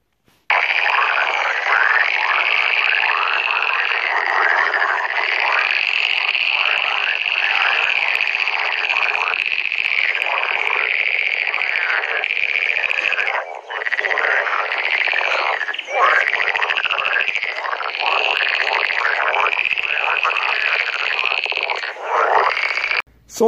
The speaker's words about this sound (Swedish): Och nu kväkte grodorna i kärret.